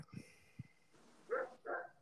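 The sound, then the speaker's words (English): A dog gives two quick barks in a row, moderately loud, preceded by a couple of soft low thumps. “Shut that dog up for my commercial.”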